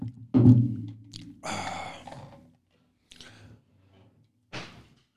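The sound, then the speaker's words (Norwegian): A door slams shut with a loud, booming thud, followed by a breathy rush of noise and a few fainter knocks and rustles before a final short burst. “Å, oh, smalt igjen døra.”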